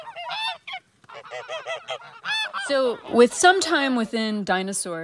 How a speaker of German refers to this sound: Und er klang, vermutet sie, am ehesten wie eine Gans oder Ente.